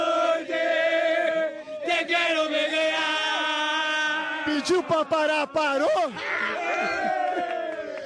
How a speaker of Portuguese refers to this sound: É a festa da torcida do Grêmio, bem em frente ao hotel do Clube Gaúcho, aqui na Barra da Tijuca, hoje com uma segurança reforçada.